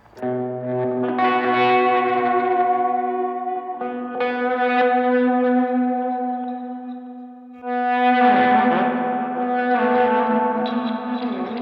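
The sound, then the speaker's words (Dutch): A sustained guitar passage played through a reverse delay effect, with long swelling notes that bloom and wash into each other, giving a backward, echoing shimmer; loud, with no talking. “Dat is een soort van een reverse delay of zo, of niet? Die heb ik erin staan.”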